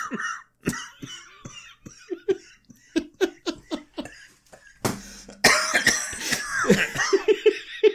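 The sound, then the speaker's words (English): Repeated sharp coughs burst out, mixed with bouts of laughter and giggling, a brief rough noise breaking in near the middle before louder laughing and coughing resume. “You're gonna have to cut out my coughs.”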